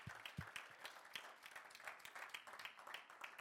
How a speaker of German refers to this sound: Hey, seid ihr nicht auch so begeistert über das Dream Team wie ich? Lass uns unserem Dream Team mal einen Applaus geben, bitte.